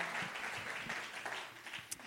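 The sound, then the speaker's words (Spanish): A church audience applauds for Jesus with dense, steady clapping that fills the whole stretch, a bright wash of overlapping hand claps at an even moderate level with one sharper snap near the end. “Dale ese aplauso fuerte a Jesús.”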